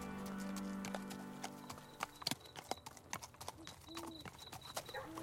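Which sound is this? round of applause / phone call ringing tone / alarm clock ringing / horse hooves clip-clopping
horse hooves clip-clopping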